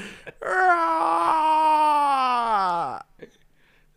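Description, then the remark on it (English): A voice imitates a Halloween decoration with a dying battery, letting out one long, strained moaning wail about two and a half seconds long that sags lower in pitch before cutting off. “you sound like a Halloween decoration that's running on a battery.”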